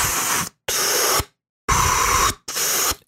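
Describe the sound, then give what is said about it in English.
A voice imitates the iron-lung-like sound made by pressing the air-release button and moving bellows in and out, with four loud, breathy whooshes of hissing air, pushed out in an in-and-out rhythm with short silent gaps between them. “Yeah, so you know he would press in the the the button there that would let the air out, and you can just kind of like with the bellows move it in and out, and it kind of made that iron lung sound like.”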